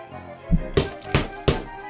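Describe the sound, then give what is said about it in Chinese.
Loud footsteps hurry down the stairs: four heavy, thudding steps in a quick, fairly even rhythm, with the first one duller and lower than the sharper ones that follow. No one speaks. “听到好大的脚步声，原来是小香从楼上跑了下来。”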